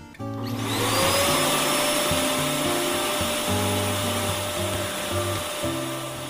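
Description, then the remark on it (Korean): A vacuum cleaner switches on and runs steadily while cleaning a son's very dirty, messy home, its loud motor whine holding constant while the pitch of the low hum shifts as it moves. No voices. “아유, 얘는 청소기를 아예 안 믿어보네.”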